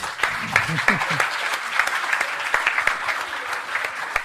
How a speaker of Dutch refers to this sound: Ik ga dan vragen aan alle leerlingen van, eh, van het project van hier op het podium te staan. We gaan er even een foto nemen. Als herinnering. Een applaus.